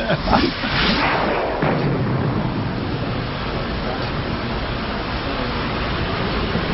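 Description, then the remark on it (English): A heavy drop vehicle slams into the bottom of a vacuum chamber with a loud, deep booming thud, then a steady low rumbling roar lingers for several seconds. “Five seconds in it hits. and you can feel the floor yeah. shake when the, when the drop vehicle hits.”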